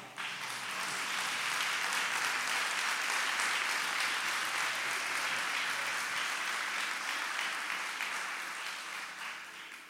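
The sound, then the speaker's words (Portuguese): A church audience bursts into sustained applause for God, a dense, steady wash of many hands clapping at once that holds strong for about ten seconds before tapering slightly at the end. “Será que esse Deus merece um forte aplauso?”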